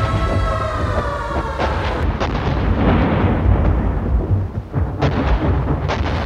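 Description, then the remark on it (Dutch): A wartime air raid: a wailing siren gives way to falling bombs that scream and whistle, then heavy, booming, cracking blasts as they hit, with windows rattling. Anti-aircraft batteries keep up a continuous rumbling thunder, broken by barking machine-gun fire, with sharp cracking bursts near the end. No one speaks. “Eerst een oorverdovend gegil en gefluit, dan de inslag dreunend en krakend, de ruiten rinkelen. Daartussen het voortdurend gedonder van de afweerbatterijen, afgewisseld door het blaffen van mitrailleurs.”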